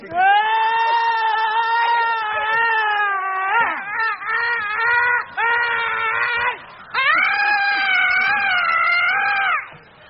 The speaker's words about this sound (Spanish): ¿Por qué gritas? Por solidaridad.